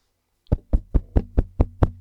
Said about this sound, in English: There's a loud banging on the roller garage door.